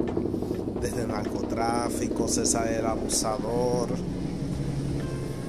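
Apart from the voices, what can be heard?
helicopter flying overhead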